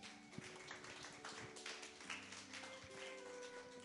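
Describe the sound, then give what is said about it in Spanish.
A church audience applauds, a dense, steady wash of many hands clapping for several seconds, fairly soft, with a sustained musical tone humming underneath. “Dale un aplauso al Señor Iglesia.”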